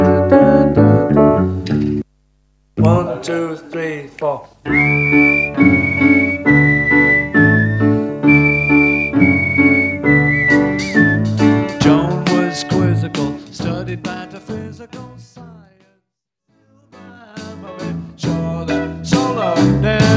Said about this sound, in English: is dictating how … should whistle a solo